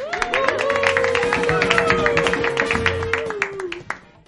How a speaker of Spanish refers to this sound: per supost, un fort aplaudiment als nostres superberengeneros i berengeneras.